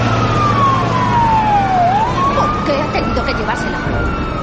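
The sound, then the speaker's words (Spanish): A police siren wails over a steady rumble of vehicles as a sheriff and armed men drive away in their cars, its tone sliding down and then climbing again as the cars pull away, loud throughout. “El sheriff Kate, junto a Gordon, su hijo y otros hombres, montan en sus coches armados y abandonan el lugar.”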